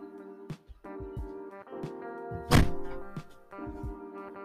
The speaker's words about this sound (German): Und zwar, ähm, Momentchen, ich muss ganz kurz die Türe schließen.